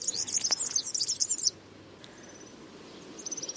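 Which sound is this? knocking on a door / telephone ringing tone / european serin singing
european serin singing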